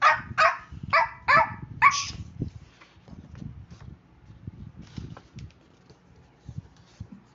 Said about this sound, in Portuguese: Lara se distraiu quando o cachorro latiu.